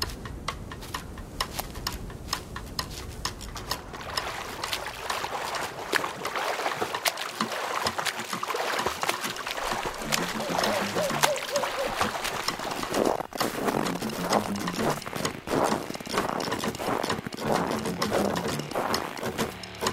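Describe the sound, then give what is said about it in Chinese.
Steady footsteps keep walking throughout, a run of crisp, fairly loud taps in an even rhythm over a soft background hiss, with no voices. “周围除了脚步声之外，还有另外的脚步声。”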